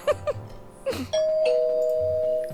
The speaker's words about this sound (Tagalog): Ayan, Rinig mo? May delivery. The busy tone. ah, sorry, ano talaga, yung, yung doorbell.